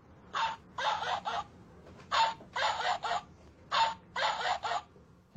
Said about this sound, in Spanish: ¿Qué crees que es? Un perro. Un perro. Date la vuelta. Sí, es un perro. Un perrito. Lo plantean como un juego. Los niños deben adivinar, por el sonido, de qué animal se trata.